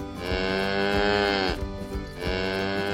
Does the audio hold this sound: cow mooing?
yes